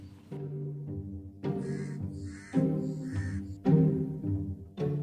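bird, birds chirping outdoors

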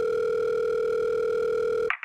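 signal or alarm, telephone dial tone

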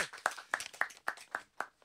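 crowd, hand clapping

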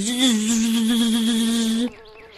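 insect, bee buzzing in flight

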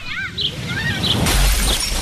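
impact, window glass shattering

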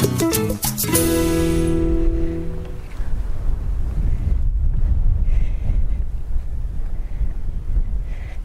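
nature, wind blowing outdoors

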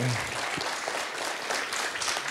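crowd, applause

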